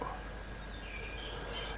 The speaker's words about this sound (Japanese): ちょっと今お絵かきをしているので鳥のさえずりをお楽しみくださいませ